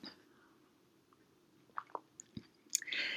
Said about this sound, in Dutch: Ik neem even een slokje van mijn thee.